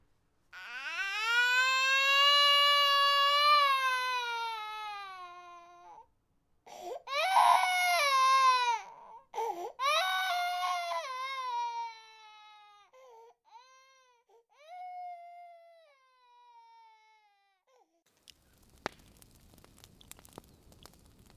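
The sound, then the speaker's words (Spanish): A girl cries alone, calling for her mother, in a long, loud, wavering wail, then breaks into shorter sobbing cries that fade and trail off, followed by a brief burst of faint crackling noise. “Si escuchas detenidamente en esa fecha, mientras sopla el viento, podrás escuchar a Margot llorando, aclamando a su madre.”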